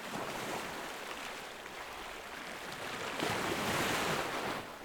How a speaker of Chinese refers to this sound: 直到海浪跟海岸交接的地方，海浪像是一条长长的白纱，装饰着这片蓝色。